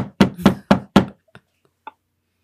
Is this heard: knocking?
yes